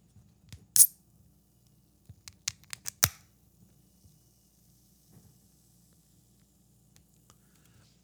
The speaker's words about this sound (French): Donc vous savez, on est rendu là, le petit moment ASMR de l'épisode. Donc, c'est parti, on s'en va ouvrir la canette.